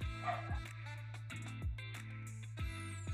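Dogs bark in irregular bursts, a handful of short woofs spaced about half a second to a second apart, sounding somewhat muffled, with no one talking.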